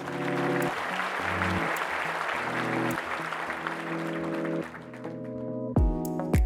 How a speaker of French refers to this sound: Alors quand on tient une avancée pour la cause, on applaudit.